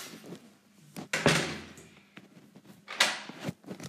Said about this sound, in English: In there. Shut the door.